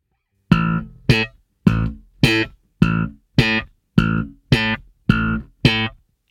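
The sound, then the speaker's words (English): Nine short, bright tonal bursts in a steady rhythm, each one squashed flat in loudness by a brick-wall limiter with the ratio turned all the way up, with silence between the hits and no talking. “Let's turn the ratio up all the way all the way. This is a crazy, crazy ratio that we're going to.”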